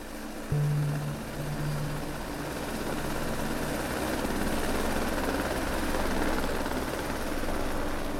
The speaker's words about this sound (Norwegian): De står og ser på at helikopteret letter.